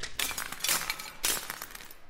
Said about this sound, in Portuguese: Terceiro bloco, toca aí a... o gongo, bro.